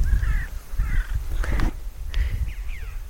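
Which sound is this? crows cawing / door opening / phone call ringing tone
crows cawing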